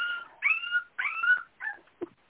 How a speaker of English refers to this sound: Oh, my puppy's going to start crying now.